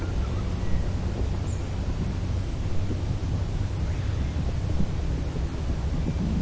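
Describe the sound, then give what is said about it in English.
Quiet countryside ambience at rural cottages, recorded first thing in the morning in October 2011: a steady, soft outdoor hush with a low rumbling undertone like wind, and a faint high chirp briefly near the start. No one speaks. “pause here for a moment and listen to the quiet sounds here at Bunjeri Cottages”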